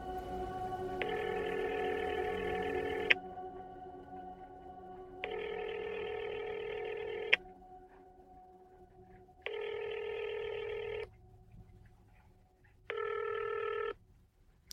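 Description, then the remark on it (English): A call to a landline telephone rings four times and goes unanswered, each ring a steady, buzzy electronic tone lasting about two seconds, separated by quieter pauses with a faint hum. No one speaks. “Of course, straight to voicemail. I'll just try the landline, Great.”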